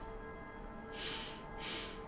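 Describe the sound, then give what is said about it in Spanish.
A voice imitates heavy breathing with two airy, rasping breaths, one right after the other, fairly soft, with no talking. “¿Se escuchó una respiración así?”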